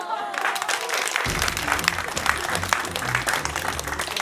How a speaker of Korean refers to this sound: 그분들의 노고에 박수를 보냅니다.